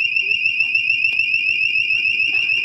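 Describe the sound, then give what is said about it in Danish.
An electronic alarm blares with a loud, shrill, steady tone that holds for the whole stretch, while faint voices and a low rhythmic rumble sit underneath. “Sådan der, så gik alarmen.”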